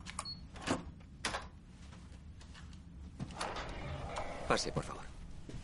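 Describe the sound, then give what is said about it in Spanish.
A bellhop unlocks a hotel room door with an electronic key card: a couple of sharp clicks, then rustling and the clatter of the door being pushed open, with faint murmuring voices in the background. “El botones abre la puerta con una llave electrónica.”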